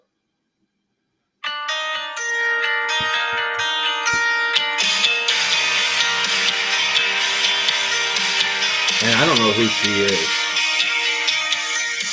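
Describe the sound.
After a second of silence, a loud rock song, a duet with male and female vocals, blares from a small phone speaker, the male singer adding a rasp to his voice, continuing steadily while a man briefly talks over it.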